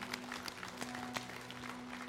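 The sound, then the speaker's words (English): An audience at a morning church service claps hands in praise to the Lord, a dense, steady wash of many overlapping claps, with a low sustained hum running underneath. “Let's give the Lord a hand clap of praise this morning.”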